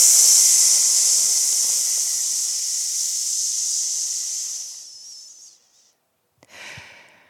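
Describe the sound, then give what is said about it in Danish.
A voice makes a long, steady hissing "psss" sound on one breath as a singing warm-up exercise, fading out after about five seconds, followed by a short breathy intake and a brief second hiss. “Og det første, vi laver, det er vores PS-lyd. Husk at sige PST, ikke har mere luft. Psss.”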